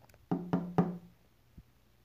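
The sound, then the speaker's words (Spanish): Three firm knocks on a wooden door in a steady, evenly spaced rhythm, resonant, followed by a faint single tap a moment later, demonstrating how someone would knock. “Cuando yo me ocupaba era cuando me iba a tocar la puerta, así, güey.”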